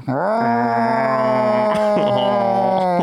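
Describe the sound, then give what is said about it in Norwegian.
People imitate wolves with a loud howl that swoops up in pitch and then holds a long, steady note for about three seconds, with no talking. “Vi uler som ulver nå, og vi drikker Grevens sider.”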